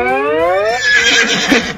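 A horse whinnies loudly, a rising, quavering neigh that breaks into a rough, shuddering snort near the end, lasting under two seconds with no talking.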